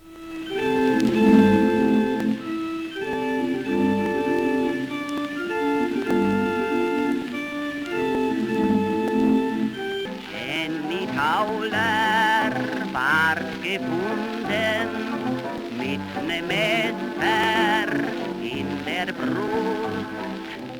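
An old, slightly thin-sounding recording of a song: about ten seconds of steady instrumental accompaniment, then a voice singing with vibrato over the music, continuing at an even level.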